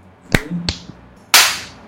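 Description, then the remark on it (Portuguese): A few sharp slaps on a table, two crisp smacks close together, then a much louder, harder slap whose ring fades out. No one talks. “deram um tapa na mesa, é.”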